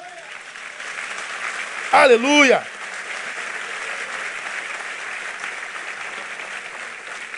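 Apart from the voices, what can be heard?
audience applause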